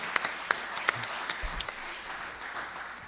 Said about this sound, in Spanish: Ah, ya debe estar aplaudiendo, ¿cómo no?